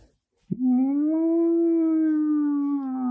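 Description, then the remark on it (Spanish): A fire engine siren wails, its pitch sweeping up and then holding a long, steady tone. It sounds loud, starting abruptly after a brief silence, with no talking. “se escuchan los bomberos, los bomberos verdaderos.”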